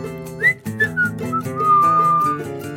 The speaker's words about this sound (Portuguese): Assobiando.